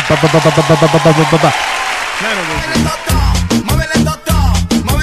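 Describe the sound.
A burst of loud applause on a radio show, with a quick, steady clapping rhythm that dies away after about two seconds, followed by someone talking over music.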